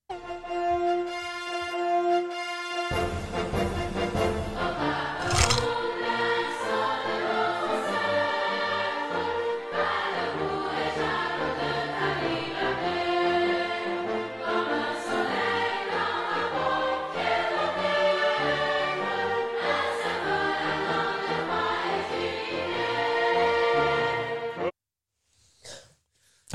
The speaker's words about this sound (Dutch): Oké, we gaan luisteren naar het volkslied van Cameroen. Denk aan je band met het vaderland.